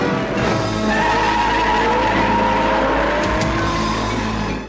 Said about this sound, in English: The you hear the brrr and the squealing tires.